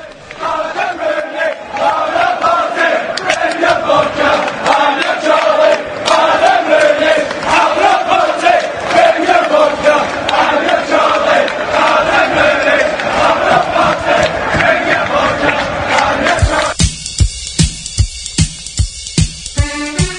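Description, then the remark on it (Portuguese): A large crowd of Aberdeen football supporters chants loudly and steadily in unison, a dense roar of voices with a rhythmic pulse, shifting near the end into sharper, clapped beats as the chant continues. “Vamos nessa, vamos ouvir então o Aberdeen cantando.”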